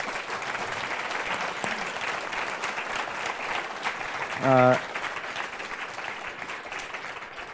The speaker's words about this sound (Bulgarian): моля аплодисменти за вас, Катерзиев